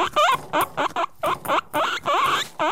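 A guinea pig squeaks in a quick run of about a dozen short, high, chirping calls with rising and falling pitch, fairly loud, with brief gaps between them and no talking.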